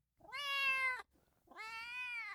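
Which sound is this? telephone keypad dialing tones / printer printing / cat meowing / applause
cat meowing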